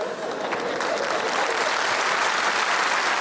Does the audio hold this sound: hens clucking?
no